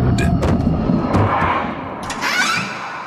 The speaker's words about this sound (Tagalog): Kasunod noon ay nadinig ko ang isang tinig at malakas na kalampag mula sa labas ng silid.